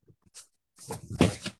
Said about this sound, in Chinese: 不好意思，我在擤鼻涕。